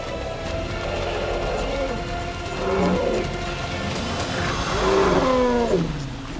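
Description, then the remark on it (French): Lions roar in a few drawn-out, throaty bursts, each sliding downward in pitch, over a constant rough background hiss with no clear talking. “Les éléphants sont bien trop nombreux pour la troupe des lions.”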